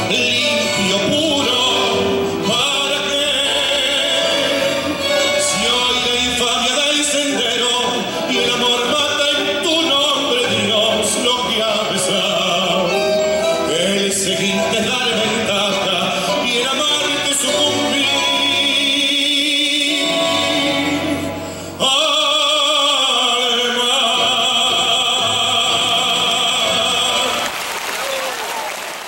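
A male singer performs a tango with full instrumental accompaniment, loud and continuous, the melody swelling in long sustained phrases before a brief break and a final section.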